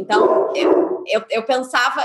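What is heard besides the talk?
dog barking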